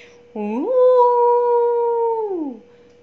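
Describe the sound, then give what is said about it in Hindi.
A single drawn-out jackal howl swoops upward, holds a steady, clear wailing pitch for about two seconds, then slides down and fades, loud with no other sounds. “अब गीदड़ों की एक ख़ास क्वालिटी होती है बच्चों कि वो सारे के सारे रात में या कभी भी उनका क्या होता है चांद की तरफ मुंह दे के कैसे चिल्लाते हैं और जहाँ एक गीदर चिल्लाता है ना सारे गीदर चिल्लाने लगते हैं सारे सियार चिल्लाने लगते हैं कैसी आवाज़ में”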